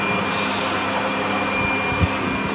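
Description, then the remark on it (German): A dog grooming blower dryer, applied at the dog's rear and blowing into its fur, roars steadily and loudly, a constant vacuum-like rushing hiss with a faint whine, unbroken throughout with a brief low thump near the end; no one speaks. “So, also jetzt haben sie ähm, den Blower angeworfen. Das ist wie, wie ein riesiger Föhn. Also eher wie ein Staubsauger.”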